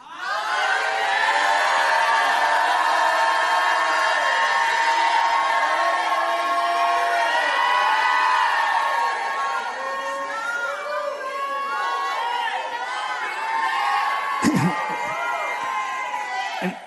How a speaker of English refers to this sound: Jump up to your feet and make some noise in this place.